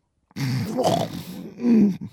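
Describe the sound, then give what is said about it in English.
A voice imitates the sudden gasping, snorting breakthrough breath a sleeper takes after the airway has been completely blocked, a rough guttural intake that swells and falls over about two seconds, fairly loud with no speech. “So what happens is you have a breakthrough breath, which sounds something like this.”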